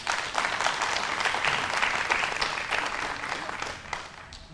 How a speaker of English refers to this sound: Y'all give them a hand clap of praise.